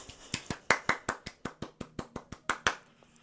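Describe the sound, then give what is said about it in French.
A quick, steady run of about fifteen sharp hand claps, evenly spaced, fading slightly toward the end with no voices over them. “Je vous laisse le temps d'applaudir.”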